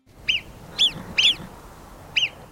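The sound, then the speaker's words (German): A marmot in the Alps, above the tree line, gives four sharp, high-pitched alarm whistles, each a brief piercing chirp, spaced irregularly over a couple of seconds and sounding loud, with faint outdoor background and no talking. “An was die meisten denken, wenn sie Murmeltier hören, ist natürlich”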